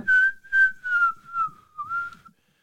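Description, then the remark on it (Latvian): Someone whistles a catchy pop tune, a clear, steady run of short melodic phrases lasting a couple of seconds, with no talking underneath. “Tagad viss var patrēnēties, pasvilpot līdzi.”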